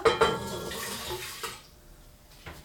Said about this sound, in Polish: I teraz E, tym samym kubkiem, którym, czy tam szklanką, którą nabierałam e, wody, mm, wlewam jedną zawartość pełnego kubka